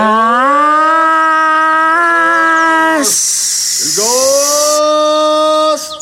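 A gas delivery truck's street call blares from a loudspeaker, a loud, drawn-out tonal cry that dips and rises again, with a burst of harsh hiss partway through.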